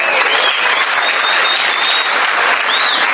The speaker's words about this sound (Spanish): Un aplauso, muchachos.